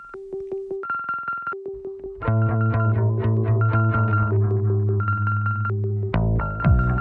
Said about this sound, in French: Mais euh, on va écouter le morceau donc euh, qui est joué qui est joué à la batterie